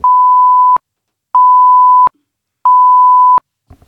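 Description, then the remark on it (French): Three long, steady keypad beeps sound at an even pace, loud, each separated by a short silence, as an access code is entered. No one speaks. “Tapez votre code s'il vous plaît.”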